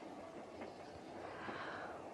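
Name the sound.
train running on rails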